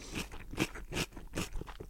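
Wet, crisp crunching of someone biting and chewing a cucumber, with several sharp bursts of crunch in a steady chewing rhythm and no talking.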